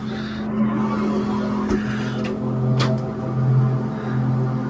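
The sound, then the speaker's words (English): A very loud, steady lawnmower engine drones without letup at eight o'clock in the morning, its buzzing hum holding a constant pitch, with a few brief sharp clicks or rattles cutting through. “That is an insanely loud lawnmower, and it's eight o'clock in the morning.”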